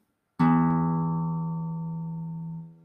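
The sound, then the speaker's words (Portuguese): A single low E note rings out clearly, rich in overtones, then sustains and slowly fades over about two seconds before stopping. No voices. “Então, eu tenho o Mi grave e o Mi agudo.”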